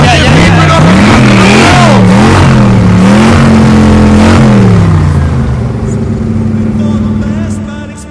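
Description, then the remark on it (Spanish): A DeLorean car engine starts and revs loudly, its pitch surging up and down several times before settling into a steadier rumble that fades slightly at the end. “Eh, que, arranca, loco, que lo arranca.”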